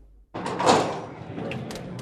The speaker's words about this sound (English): Chapter 2 A Surprise Visit at 7 p.m., the door of the tavern opens.